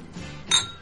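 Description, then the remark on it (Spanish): Wine glasses clink together once in a bright, ringing toast at a winery, the tone sharp, then fading quickly into quiet background. “Pues un brindis por ello, ¿no?”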